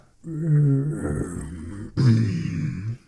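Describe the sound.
A person's voice imitates a low grunting growl in two drawn-out, rumbling bursts, the second following a brief pause. Both are fairly loud.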